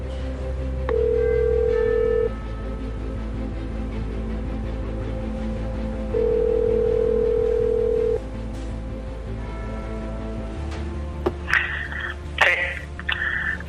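Two long, steady telephone ringing tones sound several seconds apart over a low background bed as a phone call is placed, followed by a few clicks and brief electronic beeps as the line picks up.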